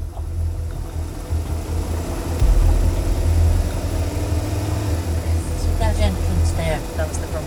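A car engine drones steadily from inside the vehicle, a continuous low rumble that stays fairly loud and even for the whole stretch, swelling slightly partway through.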